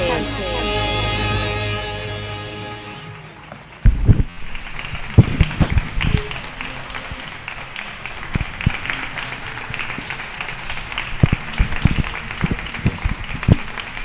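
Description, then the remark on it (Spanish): A brief fading tonal hum gives way to steady, continuous applause from many neighbours clapping together from their homes at 8 in the evening for workers, a dense patter punctuated by sharper, louder individual claps, with no talking. “Estos son mis vecinos, que cada día a las 8 de la tarde salen a hacer este aplauso maravilloso, dedicado a todos los trabajadores”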